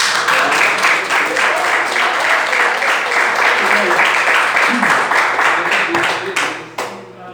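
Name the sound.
audience applause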